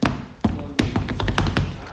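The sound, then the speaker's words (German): Tap-dance steps on a stage floor: a quick, irregular run of sharp clicks and heavier thuds, fairly loud, with no talking. “so hört sich das an, wenn wir Stepptanz machen würden.”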